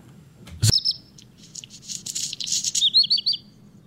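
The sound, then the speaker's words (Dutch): A redstart sings a short, bright phrase that breaks into a scratchy, grinding jumble of high notes near the end, fairly loud over a low background rumble. “Ja, dat, dat eind, hè, alsof je twee, twee, twee kiezeltjes tegen elkaar wrijft.”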